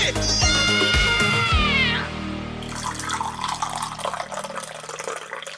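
Coffee pours steadily into a cup for a few seconds, a close, continuous splashing trickle, preceded by a brief high, sliding whine.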